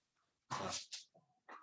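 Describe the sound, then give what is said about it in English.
Dogs playing and being loud: a loud huffing burst, a quick snort, a short whiny note, then another huff, with no one talking. “Yeah, they're just they're playing and being loud.”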